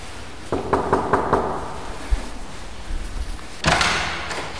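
Five quick, firm, evenly spaced knocks on an office door on the second floor of the Switzerland Innovation Park Basel Area site Jura in Courroux near Delemont, Switzerland, followed by a quiet pause and then a brief louder shuffle like the door being opened.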